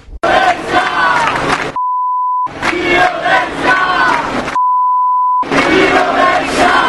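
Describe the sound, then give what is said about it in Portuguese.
Loud crowd shouting and chanting is cut twice by a steady, pure censor bleep, each lasting under a second, replacing stretches of inappropriate language in the noisy voices. “Nós tivemos que remover o linguajar inadequado”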